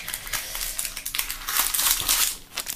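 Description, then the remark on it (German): Continuous crinkling of a crumpled chocolate truffle wrapper, with irregular bursts of crackling rustle that swell louder toward the end; no voices. “Jetzt raschelt vielleicht hier rum.”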